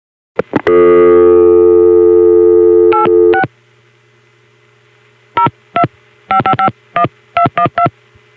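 A couple of clicks and a steady dial tone, then a string of about a dozen crisp touch-tone beeps punched in quick, uneven bursts as Arizona Directory Assistance is dialed, the call routed by a Bell System CCSA via MCI; clear.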